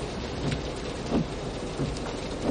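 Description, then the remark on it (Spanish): Heavy rain pours down as a car drives through it, a steady, dense hiss that fills the whole clip, with a few brief low swells rising from the downpour. No one speaks. “el coche de Somerset circula bajo la intensa lluvia”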